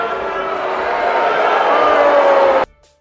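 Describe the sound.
A large audience at the Texas Republican Party's weekend convention in Houston boos and catcalls Senator John Cornyn in a loud, sustained roar of many voices that holds steady for a few seconds before cutting off abruptly.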